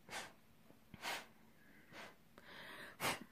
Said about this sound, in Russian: Так вот, кстати, тем, которые тявкают, что я шмыгу, я не шмыгаю, это невроз если кто не знает. А невроз у меня, потому что я очень напряженно работаю.